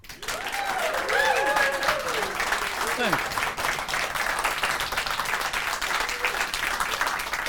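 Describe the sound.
Loud, steady theater audience applause greets cabaret performer Theo Nijland, filling the whole stretch with a dense wash of many hands clapping, with voices cheering and calling out over it near the start.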